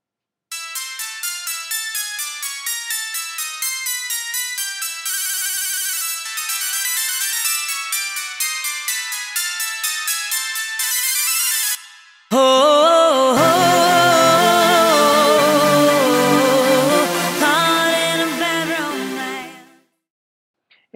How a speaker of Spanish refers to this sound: Ok, ¿qué tal si cambiamos un poco el timbre de ese clavecín y le agregamos un poco de efectos?